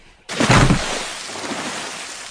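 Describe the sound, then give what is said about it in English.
A sudden, loud crash of a great stone dropped from above smashing through the bottom of a wooden boat under a bridge, with a splintering burst that fades into a lingering rumble. No one speaks. “a great stone dropped from above and smashed through the bottom of the boat.”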